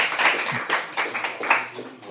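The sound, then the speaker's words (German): An audience at the final round of Palaver 2019 applauds warmly to welcome a jazz educator, a dense, steady patter of many hands clapping with small swells in loudness, continuing for a couple of seconds with no one speaking. “Ich darf ihn kurz vorstellen, aber zuerst einmal einen warmen Applaus.”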